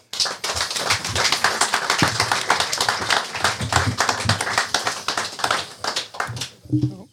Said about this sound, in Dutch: Mag ik uw applaus